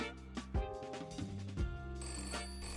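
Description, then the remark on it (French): A telephone rings as Flash calls Bumpy, with a steady, buzzy tonal chime, swelling in two strong pulses about a second apart over a sustained low hum, with no one speaking. “Après cela, Flash appellera Bumpy toutes les heures pour essayer de lui parler.”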